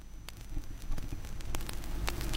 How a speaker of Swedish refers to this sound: Härligt litet brus.